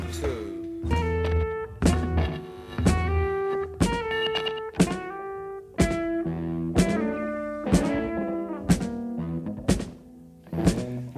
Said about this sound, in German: Und es ist eben so eine Art Jam-Session.